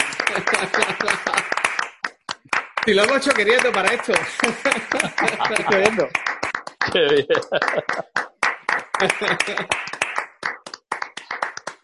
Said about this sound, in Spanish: Oye, como, está, como estamos llegando ya a la hora, a mí me gustaría terminar con un aplauso. Ah, claro. Para vosotros y para toda la gente que hay por ahí.